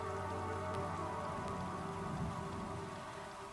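Steady rain patters against a window, a soft continuous drumming of drops that stays even throughout, with no voices, gentle rather than loud.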